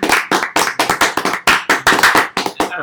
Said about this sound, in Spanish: Aplauso, producción, aplauso.